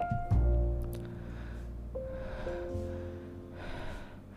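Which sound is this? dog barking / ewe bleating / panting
panting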